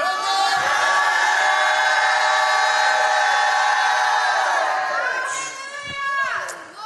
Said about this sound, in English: I'm going to stop till I hear a shout.